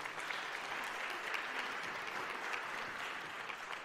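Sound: audience applause and cheering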